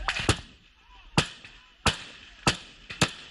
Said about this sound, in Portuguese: Atiradores do Hamas fazem uma série de disparos contra banheiros químicos.